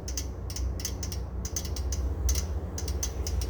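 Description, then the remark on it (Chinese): A Tatung electric rice cooker clicking as it steams: quick clusters of light, ticking rattles repeat in an uneven rhythm over a steady low hum, with no one talking. “这个声音就是它在蒸煮的过程发出的一些掉掉掉掉掉掉掉声音哦。”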